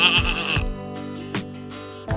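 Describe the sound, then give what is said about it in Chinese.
A goat bleats in a loud, wavering, nasal cry at the start, followed by a steadier held tone with a few shorter bleats, all without any talking. “接着登场的是小鸡，它的声音就不能够跟山羊一样了。”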